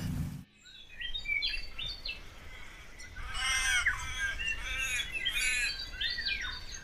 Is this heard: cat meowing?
no